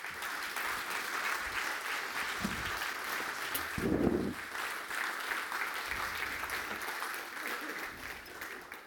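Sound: audience applause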